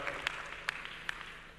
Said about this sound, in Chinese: 我们需要给没有来的这边一个掌声，Very good。